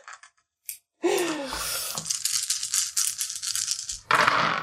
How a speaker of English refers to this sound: just rolled eight dice and I got no successes.